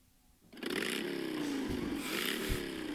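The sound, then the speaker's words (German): A small two-stroke engine, like a chainsaw or moped, starts up abruptly and runs loud, its buzzing pitch wavering and revving briefly a couple of times. “Ja, muss mit der Kettensäge ran. Oder mit dem Moped.”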